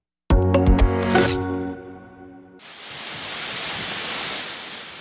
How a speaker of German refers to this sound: So klang es am Mittwochabend, als ein kurzer, aber heftiger Hagelschauer über Mexiko-Stadt niederging. Eine weiße Schicht aus Hagelkörnern bedeckte den Zocalo und umliegende Straßen.